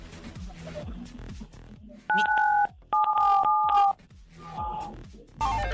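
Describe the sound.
A short series of loud telephone keypad dialing tones, a few steady dual-pitched beeps of uneven length in quick succession, with people talking before and after them.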